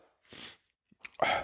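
Two sharp, breathy sneezes, the second preceded by a quick catch of breath and landing louder and fuller than the first. No one speaks.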